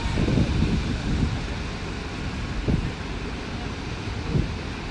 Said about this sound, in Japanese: 間ができてもね波の音があれば BGM にいいかなと思ってねちょっと BG あのビーチに来てやってみようということでねちょっと来てみました